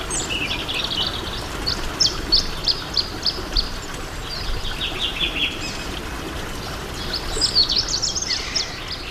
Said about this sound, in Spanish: Bueno. cuervos.